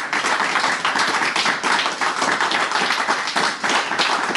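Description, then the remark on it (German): Sustained audience applause at the close of a show, dense and loud, many hands clapping continuously for several seconds with no voices breaking through. “Und jetzt könnt ihr nochmal zum Abschluss einen tosenden Applaus raushauen.”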